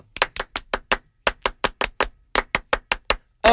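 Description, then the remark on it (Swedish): Sharp hand claps in quick rhythmic bursts, a French-style applause counted 'un, deux, trois' to welcome a listener onto the show Känslor och sånt, grouped in sets with short pauses between them, repeated several times with no talking. “Jag tycker vi kör en liten fransk applåd för vi.”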